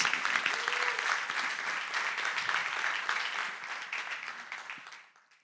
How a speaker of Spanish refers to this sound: Así que démosles un fuerte aplauso a todos ellos.